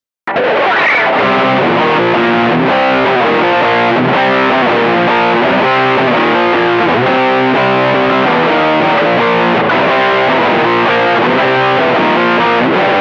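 A loud, thick distorted rock guitar riff, with two guitars doubling the same repeating pattern in a loose punky rhythm for a full, dense sound that holds steady throughout, with no voices.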